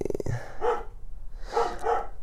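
A pet dog barks several times in quick, sharp bursts, moderately loud, with a brief pause between the first bark and a final pair.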